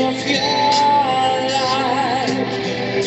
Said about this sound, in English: So we'll leave you on this gentle rock ballad. Please fast forward, only if you feel like it.